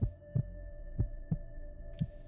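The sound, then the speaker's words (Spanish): A muffled, low heartbeat thumps steadily in paired beats, dull, like a watch wrapped in cotton, about three double-thuds over a couple of seconds, with a faint steady hum underneath and no voices. “Era un rumor sordo, ahogado, frecuente, muy análogo al que producía un reloj envuelto en algodón.”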